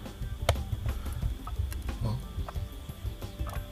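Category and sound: household object, clock ticking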